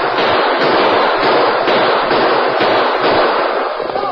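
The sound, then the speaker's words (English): A loud, dense final burst of gunfire on the prairie, with overlapping shots that blur into a continuous crackling roar lasting about four seconds, with no voices. “With a final burst of gunfire and with ear-splitting whoops, they fled over the prairie toward the shoulder of a wooded hill beyond.”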